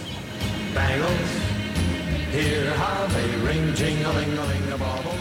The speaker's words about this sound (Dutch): Zo luisteraars, u hoort op de achtergrond een ruisgeluid. Dat is het geluid van een middengolfzender. Ja. Zo klonk dat vroeger op de radio op de Middengolf.